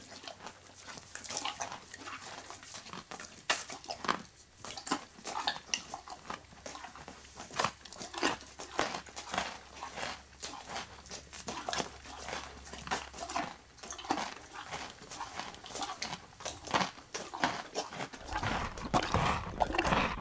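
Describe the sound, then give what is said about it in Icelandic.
A horse chewing carrots: steady wet crunching and grinding, with dense, irregular bites and snapping crunches repeating across the whole stretch, fairly loud, no voices. “Og er þá ekki viðhandi að við ljúkum þessu spjalli á því að hlusta á hest borða gullrætur annars vegar og kartöblur hins vegar.”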